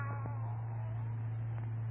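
A cat lets out a drawn-out, wavering meow, somewhat muffled and moderately quiet, over a steady low electrical hum with no talking.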